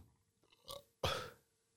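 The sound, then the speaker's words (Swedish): A loud burp rumbles out for about half a second, preceded by a softer little gulping belch, with no talking around it. “Jag var tvungen att rapa.”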